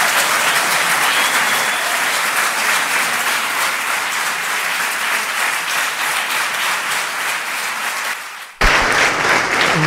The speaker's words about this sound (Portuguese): aplauso forte aqui uh, na reação a estes primeiros resultados.